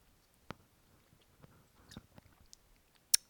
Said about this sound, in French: Je vais boire une petite gorgée d'eau. Ça, c'est les joies du no-cut euh, dans les podcasts. Hop.